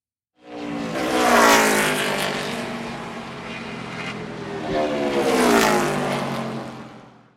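Loud race car engines roar and rev in two rising surges as the cars go back onto the track, their high-pitched whine swelling and fading as cars pass along the track, with no talking.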